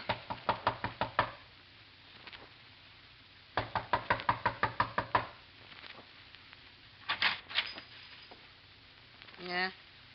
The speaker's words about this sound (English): A knock.